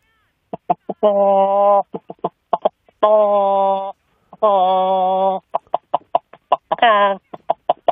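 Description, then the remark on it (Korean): A voice imitates a calm hen clucking: short, evenly spaced clucks broken up by three long, drawn-out squawking notes, loud, with no other sounds. “자, 평, 평온할 때 닭과 생명의 위기에 놓였을 때 닭 소리 들어보겠습니다.”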